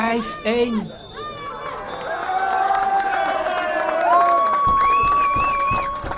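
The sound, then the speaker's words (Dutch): Helm FC ultras cheer in a stadium as their team wins 5-1 in the FE Vaas: a dense, steady roar of many voices with drawn-out chanting tones rising and falling, loud throughout and swelling slightly toward the end. “En daar zijn alle ultra's heel erg blij mee.”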